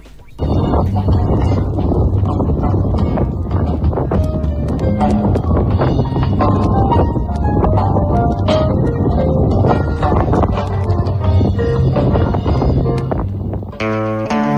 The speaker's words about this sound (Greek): θα ακούσουμε αυτόν τον αέρα τη Μακρονήσου από κάτω ακούγεται και η πρόβα που έκαναν η μουσική